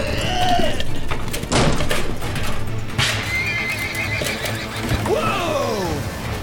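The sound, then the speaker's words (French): Several horses whinny and neigh loudly, their calls rising and falling over a steady clatter of hooves, with a couple of sharp wooden knocks in between, as the horses are let loose to flee while the village of Saint-Prime burns. “Monsieur, on va laisser les chevaux fuir!”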